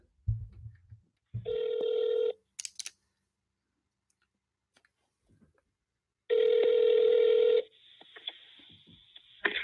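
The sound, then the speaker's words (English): A phone call rings out while waiting for someone to pick up: two loud, steady ringback tones separated by a long silent pause, with a few soft clicks in between and a faint hiss after. “If you're not gonna pick up the phone, then don't waste the time now.”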